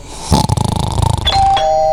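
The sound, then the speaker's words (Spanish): A doorbell rings with a buzzing, rattling tone followed by a clear electronic chime that holds and rings out; the sound is fairly loud, with no one talking. “Claro, y te olvidas ya y te puedes tirar a dormir, te despiertan encima porque decís, bueno, que me despierte el timbre cuando llegue, cuando llegue.”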